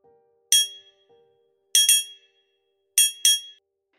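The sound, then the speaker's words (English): A triangle gives a bright metallic ringing struck five times, first a single hit, then quick pairs of strikes, each with a shimmering high tone that fades out briefly. No talking. “And I found Clarence's triangle.”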